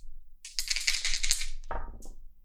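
Two six-sided dice, a glowing one for the tens digit and a blue one for the ones digit, clatter across a hard tabletop in a quick burst of sharp clicks, then tumble with a lower rattle before settling. No one speaks.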